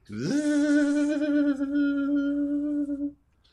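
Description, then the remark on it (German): A voice imitates an alien noise: one sustained, warbling hum that slides up at the start, then holds a steady wavering pitch for about three seconds before cutting off, fairly loud. “war das Alien-Geräusch.”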